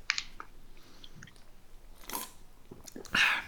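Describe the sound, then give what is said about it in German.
Crunchy chewing of dry dog food as a person tastes it himself: a series of irregular crisp bites and grinding crunches, moderately loud, ending in a louder burst of crunching, with no talking. “Mhm er hat es in der Zwischenzeit selbst probiert. Es war köstlich.”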